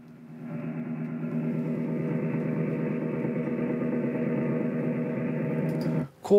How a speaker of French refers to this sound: Ça, c'est le son du brouillage utilisé pour parasiter nos messages.